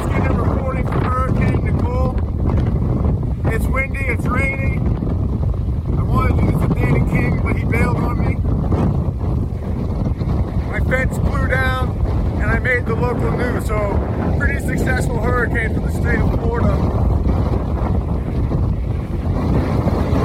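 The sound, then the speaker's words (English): Hurricane Nicole's wind on the east coast of Florida in November roars steadily and loudly, a dense low rumble buffeting the microphone for the whole stretch, with a field reporter's voice speaking partly buried beneath the gusts. “So this this hurricane actually hit us.”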